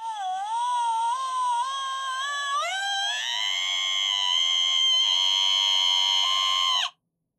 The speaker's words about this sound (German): Ja, und da gab es anscheinend als Merch die Folge in Verbindung halt mit, mit dem Wecker, der dann auch das Original Schreigeräusch macht, was ich jetzt einspielen werde.